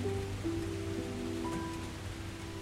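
Pouring rain fills the scene with a dense, steady hiss that holds at an even level throughout, with a faint low hum underneath and no voices.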